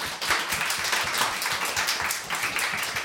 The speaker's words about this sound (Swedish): Fantastiskt Peter, tusen tack! Applåd för Peter!